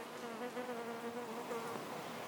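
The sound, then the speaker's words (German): A bee buzzes steadily, a continuous droning hum that wavers slightly in pitch for a couple of seconds with no talking. “ich werde hier abgelenkt von einer Biene. Ihr habt sie wahrscheinlich summen hören.”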